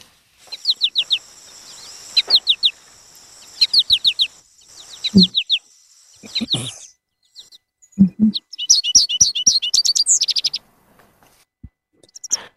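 An American goldfinch flight call: clear, high, bouncy chirps in quick groups of three or four, repeating throughout, with a few lower clucking notes mixed in near the middle.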